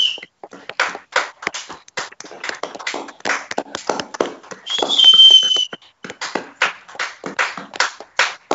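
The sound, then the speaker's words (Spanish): Steady hand clapping applauding live on air, with a quick, slightly uneven rhythm, joined briefly in the middle by a sharp whistle before the clapping carries on. No one speaks. “lo aplaudimos en directo.”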